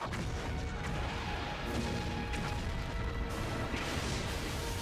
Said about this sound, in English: Random explosions!